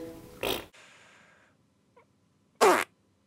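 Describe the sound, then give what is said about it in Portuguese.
Two short, loud, blaring fake fart noises, one near the start and one near the end, separated by a fading tonal tail and a brief faint blip, with no talking. “Achei que começar com um, um peido simulado seria a melhor hipótese de, de sucesso para este episódio.”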